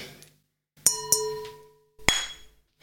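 Glasses clink together three times in a toast, each bright chime ringing out briefly before fading, with short pauses between the taps and no talking.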